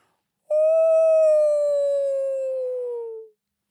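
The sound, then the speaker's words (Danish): A fox in a forest lifts its head to the sky and lets out one long, wolf-like howl, holding a steady tone that slowly slides lower over about three seconds. It is loud, with nothing else around it. “Reven løftede hovedet mod himlen og hylede som en ulv.”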